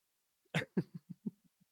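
A coughing fit: two sharp, harsh coughs in quick succession, then a run of four or five weaker, throatier coughs trailing off, with no talking.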